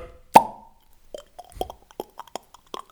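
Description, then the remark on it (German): A voice imitates a beer bottle being opened: one sharp, loud pop followed by a quick string of gurgling, glugging mouth sounds, without other talk. “…s Bierimitation, lange nicht mehr gehört”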